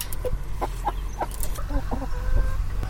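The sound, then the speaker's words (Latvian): Several small young hens cluck in a steady, repeated series of short, throaty calls, with a low outdoor rumble underneath and no one speaking. “Viņa baro savu bērniņu un baro arī to tādas maziņas, tās vistiņas, jauniņas, laikam, ja?”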